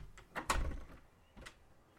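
A door is opened by a girl's father: a sharp clack of the latch and a brief rattling sweep, followed a moment later by a smaller knock, with no one speaking.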